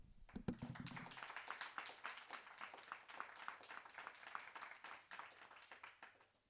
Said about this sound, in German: Erstmal ganz ähm, großen Applaus dir und allen äh, von Extinction Rebellion, die schon so viel Aufmerksamkeit für das Thema geschaffen haben.